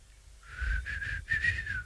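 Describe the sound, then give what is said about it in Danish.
A person attempts to whistle a short, breathy tune: two wavering bursts of thin, airy notes with a brief gap between them, with no talking. “Er det øh, folk, der dubi dubier, er det dem, som ikke kan fløjte? Kan du fløjte?”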